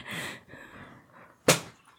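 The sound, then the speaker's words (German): A bottle tips over and hits a hard surface with one sharp knock, preceded by soft rustling and followed by a faint settling rattle. “Das war meine Flasche, die umgefallen ist.”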